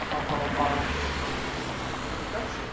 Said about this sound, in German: Ja, das war unser erster Einspieler. Ein Verkehrsrausch.